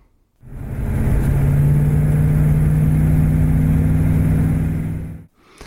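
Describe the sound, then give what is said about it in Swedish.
The 6.7-litre V8 engine of a 1964 Facel Vega II car idles with a deep, steady, throaty rumble, starting abruptly and cutting off after about five seconds. Loud, with no voices. “Det här, det är ljudet från fasellen.”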